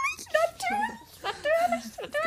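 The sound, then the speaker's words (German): A dog whimpers in a string of high, wavering whines and yips, several short bursts over a couple of seconds, with a voice overlapping. “Und ja, Hundi, ich mag dich auch, Hund.”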